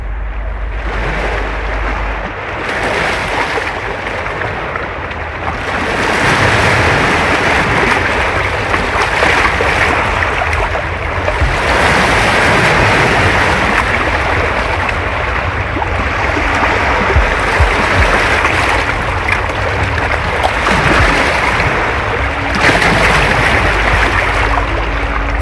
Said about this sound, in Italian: inizia con l'acqua, eh? inizia col mare, ne sentiamo un frammento.